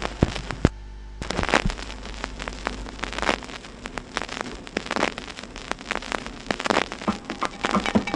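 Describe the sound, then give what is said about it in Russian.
Vinyl record crackle: a steady bed of soft surface hiss peppered with irregular sharp pops and clicks, some louder than others, with a faint low hum underneath and no voices. “Только винил в рамках программы «Возвращение в Эдем». Слышите, как он трещит?”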